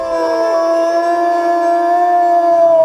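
A single long, loud howl, like a wolf's, holds steady for about three seconds and sags slightly in pitch near the end. No voices, just the mournful wavering cry.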